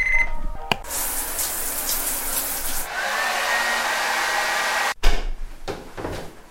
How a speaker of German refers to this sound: Es ist 2.35 Uhr. Der Wecker klingelt erbarmungslos.